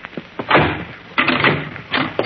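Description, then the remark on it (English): A door opens with a few short rattling knocks and a scraping sweep as someone is let in, then more clattering movement, heard on its own with no talking. “Come in, Mr. Ed, quick, huh? All right, I'm in. Get the door shut.”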